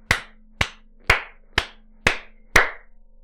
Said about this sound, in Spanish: Querían aplausos, ahí está.